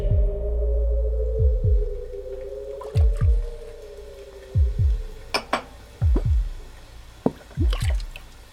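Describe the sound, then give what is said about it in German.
Glasses being rinsed at a pub's bar counter: repeated watery sloshes and drips with a few sharp clinks, over a steady wavering hum, fairly clear, with no talking, while rain pours outside. “spülte Gläser an der Theke, während die hübsche Marianne am Stammtisch einkassierte”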